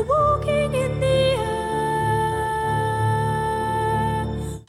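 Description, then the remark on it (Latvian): A high, clear solo voice sings a sustained, gliding melody over soft orchestral accompaniment, a song from an animated film about a snowman, loud throughout, holding long notes before fading at the end. “Šī dziesma skan šādi.”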